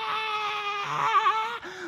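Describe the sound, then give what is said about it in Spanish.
A voice imitates a child screaming in panic after losing sight of his mother among clothing stores: one loud, sustained, high-pitched wail lasting nearly two seconds, wavering in the middle before briefly breaking off and resuming. “empieza a ver para abajo, empieza a ver para todos lados, no puede muy para arriba porque hay tiendas de ropa, empieza para todos lados, empieza a ver, empieza a ver, empieza y de repente del pánico pega el grito.”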